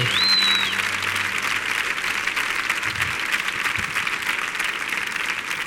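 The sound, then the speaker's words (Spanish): Sustained audience applause, a dense, steady wash of many hands clapping at an even loudness throughout, with a brief high whistle near the start and no talking over it. “Fuerte el aplauso para el canijo, para el ratón, para Manu y para Miguel.”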